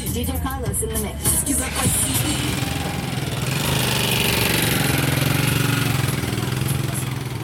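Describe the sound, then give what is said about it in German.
The engine of a rattly Kenyan matatu minibus runs continuously, a steady low rumble with some rattling and clatter, loud throughout, with faint voices briefly audible near the start. “In der ersten Zeit sind wir oft in Matatus unterwegs, den für Kenia typischen Bussen.”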